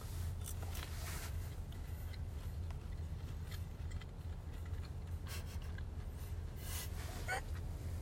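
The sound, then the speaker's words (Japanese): Chewing of chicken nuggets, with irregular soft crunchy and smacking bursts over a steady low hum, no talking. “何咀嚼が入るのが面白いとそうこれ多分さ携帯まで届いてないからただの間なんだろうなああ今ナゲット噛みながら喋ってまし”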